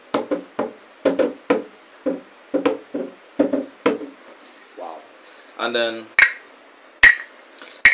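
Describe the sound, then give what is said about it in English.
A traditional hand drum, one of three, beaten with the hands in a quick, uneven rhythm of about nine resonant hits, then a brief spoken phrase and a few sharper, ringing slaps. “I think they're supposed to beat it with the hands”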